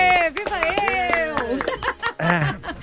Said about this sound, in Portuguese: E eu quero pedir outra salva de palmas